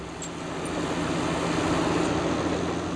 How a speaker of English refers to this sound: At the city of Islip's landfill on Long Island, garbage trucks arrive one after the other.